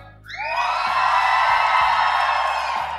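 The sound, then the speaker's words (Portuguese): An audience erupts in loud, sustained shouting and cheering to cast a tiebreak vote between the films Harry Potter and The Godfather, many voices whooping together at once, swelling quickly and holding strong for a few seconds. “Vai pra plateia.”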